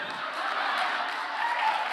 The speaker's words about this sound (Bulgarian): А, а, не пляскайте, отнемате време.